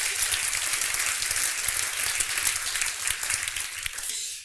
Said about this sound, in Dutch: Graag een applaus voor onze eigen UT-droomreiziger.